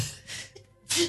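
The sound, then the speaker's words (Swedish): A quick intake of breath followed by a sharp, loud sneeze, with no talking around it. “Prosit.”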